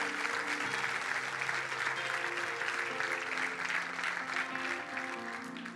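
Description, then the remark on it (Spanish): An audience claps in sustained, dense applause for several seconds, steady and fairly loud, with faint sustained tones underneath and a slight tapering at the end. The audience is giving glory and applause to God for the redemptive work of Christ. “Dele un gloria a Dios y un fuerte aplauso a Dios por eso.”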